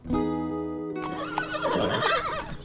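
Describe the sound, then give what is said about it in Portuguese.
A horse lets out a loud whinny during a horseback ride, a strong harmonic call lasting about a second, followed by a rougher, fluttering neigh that trails off. No one speaks. “Fomos passear a cavalo.”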